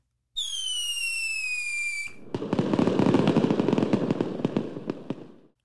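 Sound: fireworks exploding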